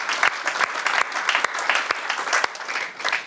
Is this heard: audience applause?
yes